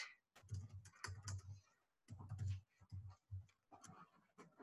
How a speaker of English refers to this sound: You'll hear me typing because I have to type a description.